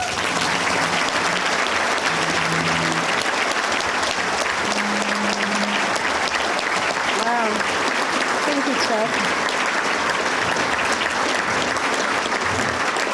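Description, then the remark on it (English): Sustained applause from a large banquet audience at the Red Smith banquet, welcoming sportscaster Lesley Visser as speaker: a dense, steady wash of clapping lasting throughout, with a few faint voices and cheers mixed in underneath. “Let's give a Red Smith welcome.”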